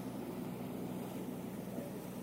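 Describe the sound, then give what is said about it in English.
A steady, low engine drone from a small boat moving up a harbour, constant, with a broad rushing wash of water and wind spread over it and no voices. “This little boat's going to struggle.”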